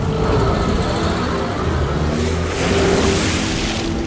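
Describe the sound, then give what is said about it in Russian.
Balashov's car, driven by his chauffeur, pulls off and drives away, its engine humming steadily with a low, even drone and a faint rev. No one speaks. “Машина Балашова уезжает.”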